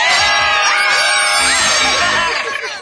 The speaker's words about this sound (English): The rest of the day, whenever anyone says a secret word, scream real loud!